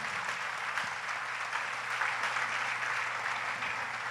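Steady audience applause, a dense wash of many hands clapping at an even level for the whole stretch, with no talking over it.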